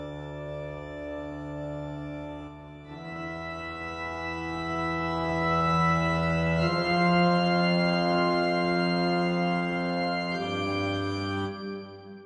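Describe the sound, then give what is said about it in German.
Deep sustained bass notes from a Town Hall organ hold steady tones, shifting pitch every few seconds through a slow chord progression, rich with harmonics and a faint airy breath in the sound, no voices. “Die Basstöne, die haben wir einerseits durch diese Orgel, wieder die Orgen Town Hall.”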